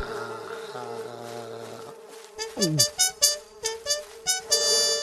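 A fly buzzes in a steady, droning hum for a couple of seconds, then breaks into a rapid run of short, pulsing buzzes, about seven bursts, with no one talking.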